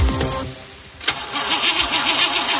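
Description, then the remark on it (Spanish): A car starter whirs and cranks for a moment, then the engine catches with a sharp burst and settles into a loud, steady running rumble. No one speaks. “¿Problemas con la batería de tu coche?”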